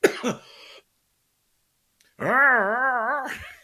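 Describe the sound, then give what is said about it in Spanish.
A person imitates a lion's roar: a short rough vocal burst, a pause of silence, then a loud, sustained growling roar that wavers up and down for over a second before cutting off. “Y aquí el león empieza.”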